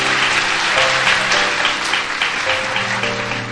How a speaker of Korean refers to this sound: 대표로 박수 한번 보내주시기 바랍니다.